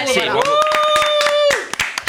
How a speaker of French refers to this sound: on peut l'applaudir hein, quand même, c'est un show.